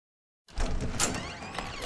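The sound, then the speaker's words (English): After a brief silence, a door at Logan's house slides open in a clip from Veronica Mars as Dick answers it, with a steady rolling rumble and faint scraping that continues to the end, moderately loud, with no voices. “And, and here is a great clip from Veronica Mars where Veronica shows up at Logan's house and Dick answers the door and uh, it's a it's a clever little exchange between the two.”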